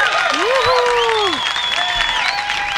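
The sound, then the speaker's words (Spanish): Steady applause from a crowd fills the whole moment, dense and fairly loud, with a few high whistles and cheers rising above the clapping. “También le aplaudo a usted.”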